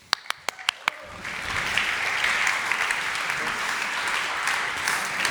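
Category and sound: crowd, audience applause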